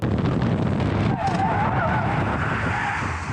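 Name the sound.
car skidding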